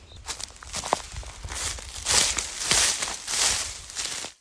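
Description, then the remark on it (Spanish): Steady footsteps crunch across rough outdoor ground, roughly two steps per second, fairly loud, with a gritty, rustling texture to each step and no voices. “te siento caminando conmigo, compartiendo las pisadas.”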